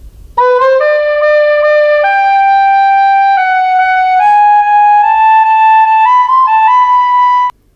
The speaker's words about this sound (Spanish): Vamos a escuchar primero la versión que cantaba el estornino, que hay una nota alterada y una, una fermata, y luego cómo tendría que haber eh, silbado o pajareado la nota que le enseñó Mozart a la flauta.